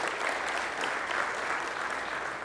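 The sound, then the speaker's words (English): Steady applause from an audience giving themselves a round of applause, a dense wash of many hands clapping at an even level for a few seconds, with no voices standing out. “You give yourselves a round of applause.”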